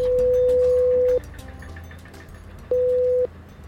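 An intercom buzzes at a building entrance: two flat electronic tones, a longer one then a shorter one after a pause, sounding over low outdoor rumble and faint clicks.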